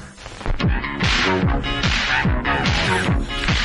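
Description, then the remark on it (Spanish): A loud, busy Indian cover version of a pop song plays, with punchy percussive hits and repeated swooping, descending bass tones driving a steady, fast rhythm. “Qué maravilla. Suena, la versión suena así.”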